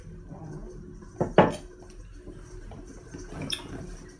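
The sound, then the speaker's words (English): A coffee cup is handled for a sip of coffee: a couple of sharp ceramic clinks close together, then a quieter clack a couple of seconds later, with soft shuffling in between and no talking. “We will take a little sip before we start.”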